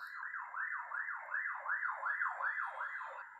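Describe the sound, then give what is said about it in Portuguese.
A police siren yelps outside as police arrive, in rapid, repeating rising-and-falling sweeps, holding steady and fairly loud throughout with no voices over it. “Peraí que a polícia está chegando aqui.”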